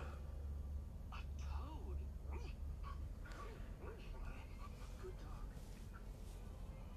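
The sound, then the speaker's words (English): A dog whimpers in short, rising whines between quick breathy pants, steady against a low background rumble. “Yes, good dog.”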